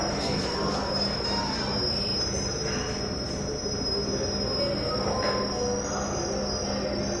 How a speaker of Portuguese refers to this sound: Esse som são né, as chaleiras já apitando.